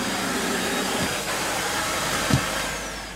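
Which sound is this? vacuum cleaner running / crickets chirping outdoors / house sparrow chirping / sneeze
vacuum cleaner running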